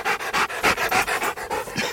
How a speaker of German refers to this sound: Es war total beeindruckende Arbeit von den Hunden, toll. Ja, und vor allem man merkt, dass sie was geleistet haben. Die japsen ganz schön.